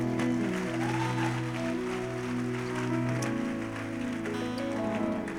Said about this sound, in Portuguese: Vamos aplaudir o Senhor mais uma vez, igreja.